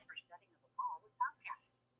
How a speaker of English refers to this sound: I'm getting some radio interference or something. I hear it. Maybe it's the Russians. Sounds like a voicemail. Yeah, who's leaving a voicemail? Uh, I'm not sure. I heard it too.